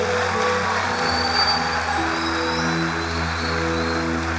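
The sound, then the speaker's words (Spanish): An audience claps steadily for several seconds, applause given to Jesus Christ at the end of a prayer, a dense, even wash of applause with no breaks, while a low sustained musical tone hums underneath. “Den un aplauso a Jesucristo.”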